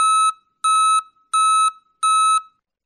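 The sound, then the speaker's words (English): A snowplow's backup alarm in Ottawa, Canada, beeps four times in a steady, evenly spaced rhythm, each tone loud, bright and piercing, with short silent gaps between and no other sounds. “The city of Ottawa is changing the sounds its snowplows and trucks make when they back up. Instead of the beep, beep, beep, it's more like static.”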